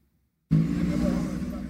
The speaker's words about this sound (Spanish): El kilómetro 9 de la autopista Duarte volvió al constante movimiento de los días habituales. Decenas de autobuses llegaron repletos de viajeros.